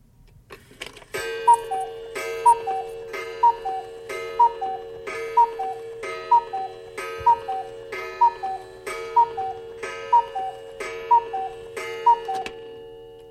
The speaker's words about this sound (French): Oui, euh, vous entendez que les, heures euh, sonnent, les temps passent.